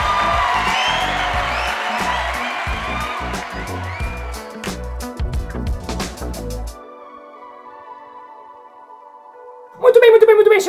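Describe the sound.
A crowd applauds and cheers with excited whoops for a guest introduced by the host, loud and dense for several seconds, then it drops away to a lingering ringing tone before a voice starts speaking.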